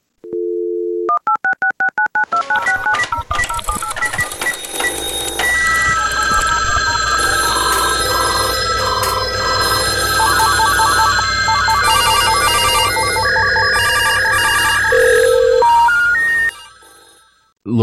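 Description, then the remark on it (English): A phone line opens with a steady dial tone, then a rapid string of touch-tone beeps as a number is punched in, followed by a long stretch of bright electronic ringing and tones. “And let's go to the phones.”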